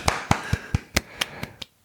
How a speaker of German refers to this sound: Herzlichen Glückwunsch von uns. Vom gesamten Code and Chip Team. und sicherlich auch von allen Hörern. Redaktion und Produzenten klatschen Beifall.